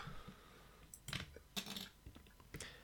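A few quiet plastic clicks and rattles of small parts as batteries are taken out of a computer keyboard and new ones put in, in short irregular bursts with no talking.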